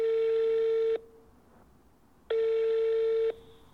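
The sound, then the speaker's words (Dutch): Two long, steady electronic ringing tones from a telephone line as a phone call is placed, each about a second long with a pause between, heard clearly and alone with no voices. “Ik ga ze bellen. Dit moeten ze horen.”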